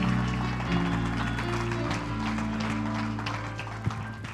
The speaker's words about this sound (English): Let's give a hand clap to the Lord.